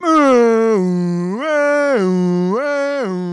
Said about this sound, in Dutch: Nee, ze wil gewoon wakker worden met een of ander luchtalarm waar je zo wakker van wordt. Want dat is wat ik heb.